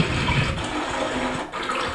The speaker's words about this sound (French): Non, je pense que c'est une, euh, charrette qui roule. Euh, non? De l'eau.